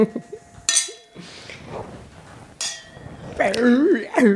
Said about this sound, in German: Wollen wir doch mal anstoßen mit unserem äh, My Wine Wine? Mit dem Marilla. Oh, mit, mit dem Marilla. Prost.